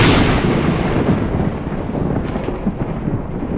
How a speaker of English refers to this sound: Clapping, thunder, yeah. and lightning.